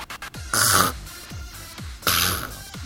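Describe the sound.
A voice imitates a raspy, scraping animal call heard at night from the next room, not a cat's voice, made by a small creature kept in a round, dome-shaped cage: a few quick clicks, then two harsh, breathy hissing rasps with short pauses between them, fairly loud.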